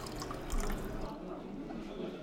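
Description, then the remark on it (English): Wine pours into a glass in a steady, soft liquid rush with faint splashing and dripping, slightly louder for a moment early on before settling into a quiet, continuous trickle. “Ooh, yeah, I'm gonna need another glass of wine.”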